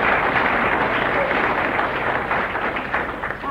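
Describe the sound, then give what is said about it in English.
A crowd in Southend breaks into steady, sustained applause for a woman, dense overlapping claps filling the room at a fairly loud level for several seconds, with a faint murmur of voices mixed in. “Give her a clap.”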